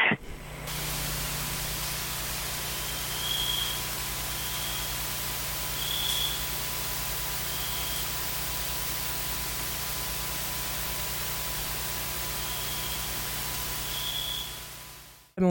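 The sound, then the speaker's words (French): Steady, soft hiss of a quiet tropical forest, with one or two faint, isolated crickets chirping in the background at irregular intervals. No one speaks. “oui, alors euh, voilà, donc on n'entend pas grand-chose, on entend peut-être un ou deux grillons euh, qui chantent au fond.”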